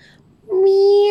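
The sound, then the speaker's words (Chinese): In a narrated story, a voice imitates a kitten's meow coming from outside the window as the kitten appears on the windowsill: one drawn-out, steady, mid-pitched call that starts abruptly after a quiet moment and holds loud to the end. “喵！”啊，小猫出现在窗台上了。”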